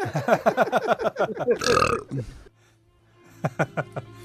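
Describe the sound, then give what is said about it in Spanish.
A voice imitates a long, loud, croaking burp, a rapid run of guttural pulses ending in a rough, breathy gush, followed by a lull and a few faint clicks. “No, amigo, fíjate que le corté ayer, como yo ya soy de edad, acabé con agua mineral porque empecé a eruptar así puro como ácido muriático.”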